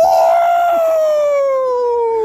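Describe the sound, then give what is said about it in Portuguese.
At a Hawaiian-themed 'baptism' gathering, a man imitates a lion's roar with one long, loud, sustained vocal cry that starts fairly high and slides gradually lower in pitch over about two seconds, with no other talk. “Ah, o rugido do leão, é assim.”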